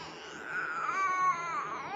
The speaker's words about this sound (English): Stop acting like that. Seriously, stop. Nobody wants to hear you crying like that.